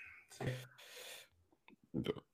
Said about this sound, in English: Oh. Yeah. Sorry. That was a burp, ladies and gentlemen.